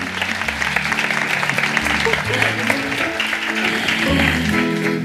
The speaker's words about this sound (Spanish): Pues un aplauso para esta sección maravillosa